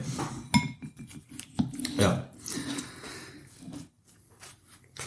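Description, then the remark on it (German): Scraping of a knife spreading butter across a bread roll, with sharp clinks of cutlery against a plate and some low, indistinct vocal sounds in between. “Ja, so, Brötchen ist geschmiert.”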